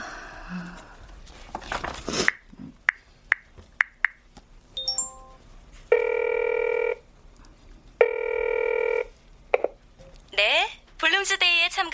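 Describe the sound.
A rapid series of short dialing tones is followed by two long, steady ring tones on a phone line as a tour organiser recruiting travellers for Bloomsday is called, then a brief voice answers. The sounds are fairly loud.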